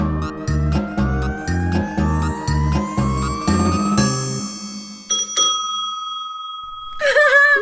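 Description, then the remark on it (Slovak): A bicycle bell rings brightly in short bursts near the end, after a bouncy rhythmic backing with a steadily rising, whistle-like tone. “Zvonček!”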